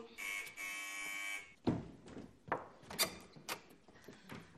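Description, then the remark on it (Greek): A loud, steady electric door buzzer sounds for over a second, followed by clunks, rattles and knocks as a door is unlatched and opened for a visitor. “πήγαινε τώρα εσύ και όλο το χειμώνα θα την ανοίγω εγώ την πόρτα.”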